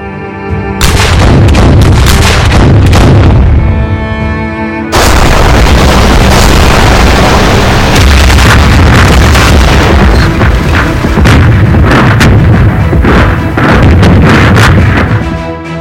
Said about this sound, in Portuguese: Seu prelúdio foi uma devastadora barragem de artilharia com mil canhões, sendo os primeiros 882 disparos preparados para que seus projéteis atingissem simultaneamente as posições do eixo